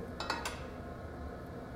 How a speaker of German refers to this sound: Das Ganze brutzelt jetzt langsam vor sich hin.